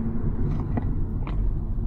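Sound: car engine rumble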